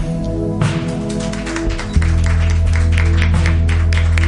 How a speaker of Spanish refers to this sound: Un fuerte aplauso.